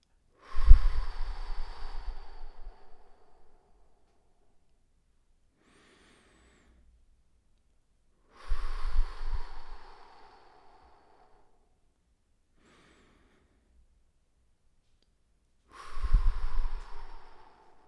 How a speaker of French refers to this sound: Inspirez et expirez lentement. Tout en inspirant, pensez à votre succès et en soufflant, pensez à le diffuser dans votre corps. Inspirez sur 3 secondes, retenez votre respiration sur 2 secondes et expirez sur 5 secondes.